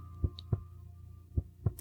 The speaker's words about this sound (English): With your eyes closed, focus your energy on the beating of your heart.